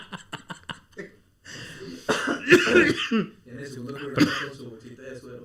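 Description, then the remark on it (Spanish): A quick burst of short, sharp coughs and throat clearing opens up, followed by a person talking. “Es que estoy tratando, yo estoy acá, güey, tratando de que no me dé tos y al mismo tiempo analizar este cabrón.”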